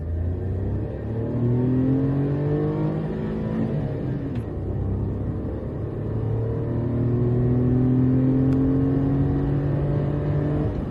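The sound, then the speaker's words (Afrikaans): A small three-cylinder 1000cc car engine (53 kW, 93 Nm) in a car weighing 840 kg accelerates up through the gears, its steady hum climbing in pitch, dropping briefly at a gear change, then rising again. No one speaks. “Die 3-silinder 1000cc lewer 'n beskeie 53 kW en 93 Nm.”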